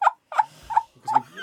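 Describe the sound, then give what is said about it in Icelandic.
Four short, bright honks from a handheld squeeze horn used as a quiz buzzer, spaced roughly evenly apart, loud with a slightly nasal, squawky tone and no one talking. “Já, ég held að ég takk í lúðurinn”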